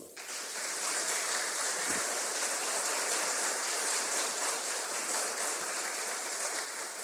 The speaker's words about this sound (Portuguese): Aplausos para Jesus.